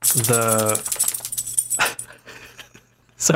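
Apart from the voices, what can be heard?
dog making noise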